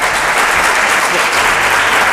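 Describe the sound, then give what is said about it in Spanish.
A seated audience at an event of the Regulatory Council of the Ribera de Duero Designation of Origin in Roa applauds, a dense, steady wash of many hands clapping at once, loud and unbroken for a couple of seconds with no single claps standing out. “A ver si aplauden.”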